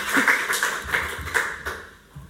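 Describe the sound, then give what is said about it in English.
At a lecture, a chair scrapes and scoots across the floor in a few short, bumpy pushes, with a steady grinding rasp punctuated by low thuds, moderately loud. “scoot my chair over.”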